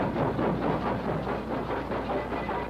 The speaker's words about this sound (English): smell of soot and steam and iron and cigar smoke as the train jolts away into the past.